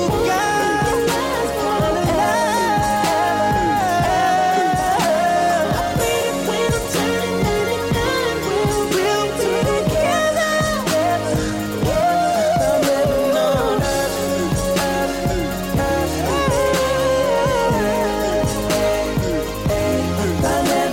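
A pop/R&B song plays loud and steady for the whole stretch, with a sung vocal line gliding over a full backing track and a driving beat. No speech over it.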